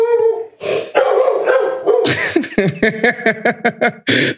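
A dog lets out a long drawn-out howl, then breaks into a quick series of sharp barks and yips, loud and alone with no talking.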